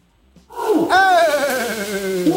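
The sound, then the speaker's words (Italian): A loud ape roar erupts after a brief quiet moment, a harsh, harmonic bellow that rises and then slowly sinks in pitch, sustained for about two seconds. “Scimmia?”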